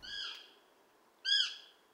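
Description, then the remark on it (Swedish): A Eurasian sparrowhawk gives two shrill, harmonic calls about a second apart, the second sharper and louder, with quiet between them and no one talking. “Det här är inget läte som jag tänker på att jag hör särskilt ofta eller så som, som fågelskådare.”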